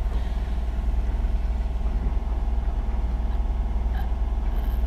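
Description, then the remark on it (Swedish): A boat engine drones continuously on board a boat, with a deep, rumbling low end and a constant mid-range hum, loud, with no speech over it. “Om ni undrar vad som låter här i bakgrunden så är det ju då en båtmotor.”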